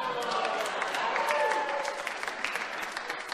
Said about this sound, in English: hold, on, hold on, hold on. You're clapping too soon.